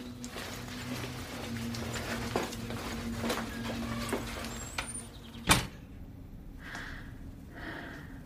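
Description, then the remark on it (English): People climb into a car to go to school: a low, steady rumble with scattered soft knocks and rustles, then a single sharp door thud partway through, followed by quieter shuffling inside. “Come on, let's get in the car, or you'll be late for school.”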